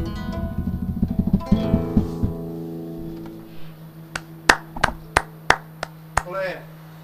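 A sung, guitar-like passage rings out and fades, then a few people at a radio station break into brief, scattered applause for the visiting musical duo, around eight sharp claps in an uneven rhythm.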